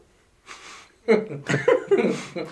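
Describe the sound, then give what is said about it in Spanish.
A voice imitates a sharp nasal snort, a strong puff of air through the nose: a brief breathy puff of air, then several short voiced, chuckle-like huffs in quick succession, fairly loud. “Era un estornudo. Es como una, un soplido fuerte por la nariz.”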